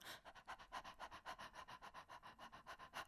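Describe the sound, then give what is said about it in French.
A person doing a breathing exercise pants rapidly and rhythmically, imitating a small dog, with about six or seven quick breathy puffs per second. The panting is steady, with no talking. “Vous allez imaginer que vous êtes un, petit chien et vous allez respirer comme un petit chien.”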